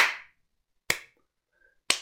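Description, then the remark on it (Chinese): Sparse, half-hearted applause welcoming a new floor manager: just three separate sharp hand claps, spaced about a second apart, with silence between them and no voices. “稀稀拉拉的掌声响起，有的在掏耳朵，有的在吹口哨，没几个人鼓掌。”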